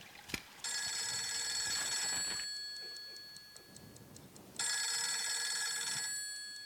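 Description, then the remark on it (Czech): A telephone bell rings loudly in two long metallic bursts separated by a short pause, each ring rattling rapidly and then fading out, with no talking. “To prdele, to je telefon, aha.”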